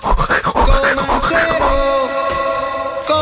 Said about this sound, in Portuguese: mas repara, isto é vinil? Ouve-se o crepitar